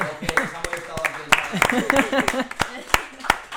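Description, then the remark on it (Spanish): Scattered hand claps, about a dozen sharp irregular smacks, from what sounds like only a few people, while voices chatter and laugh underneath throughout. “Un aplauso”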